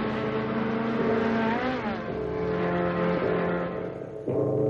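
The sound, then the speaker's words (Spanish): A motorcycle engine roars at full speed along a road, its pitch rising and falling as it accelerates and shifts gears, loud and steady throughout with no voices. “Al día siguiente, una moto avanza a toda velocidad por la carretera.”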